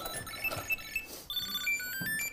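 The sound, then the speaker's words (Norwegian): A small Bluetooth key finder tracker on a car key, found in a backpack and set off through a Siri shortcut, rings with a string of high, shrill melodic beeps that shift pitch, playing continuously and fairly loud, with no one talking. “Nå har jeg sagt at bilnøkkelen er den. Og der. Og der, der låter det ganske høyt her nå.”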